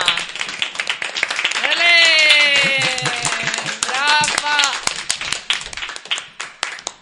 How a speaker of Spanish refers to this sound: Gracias, gracias. Un aplauso.